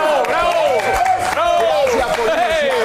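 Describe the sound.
The studio audience of the TV show Despierta América claps steadily throughout, a dense wash of applause sitting beneath loud, animated voices that talk and sing over it.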